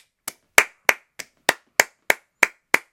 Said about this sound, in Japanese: まずご報告なんですけど、あの、皆様からですね、えー、応援していただき、ランダムギフト応募券、えー、達成することができました。拍手